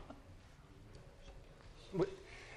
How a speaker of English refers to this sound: And I love it as a, as a teacher, you know, when you ask a question and you hear this rustling of papers. What does that mean? Everybody's going for their notes.